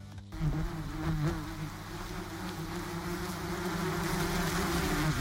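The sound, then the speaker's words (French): Steady, continuous buzzing of bees, a dense droning hum with wavering pitch that holds for several seconds, with no voices present. “C'est ça, c'est ça. Des abeilles.”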